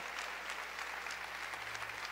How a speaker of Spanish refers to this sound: No pares de aplaudirle hoy. Fuerte ese aplauso al Señor. Fuerte ese aplauso al Espíritu Santo.